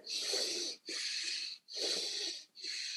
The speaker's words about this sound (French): Respiration profonde par le nez mm-hmm. pour stimuler tout.